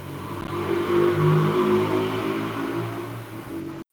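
A motorcycle engine revs loudly, its pitch swelling and then easing as it passes, a continuous throaty drone that cuts off abruptly at the end.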